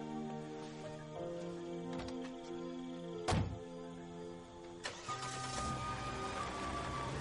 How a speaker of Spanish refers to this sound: Ahora se aleja ella con firmeza y se marcha en el coche.